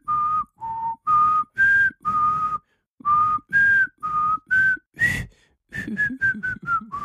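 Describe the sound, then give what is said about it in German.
Someone whistles a melody in short, clear notes, with brief pauses between phrases and a quick run of descending notes at the end. “Ja, war, war ganz stark gepfiffen, auf jeden Fall.”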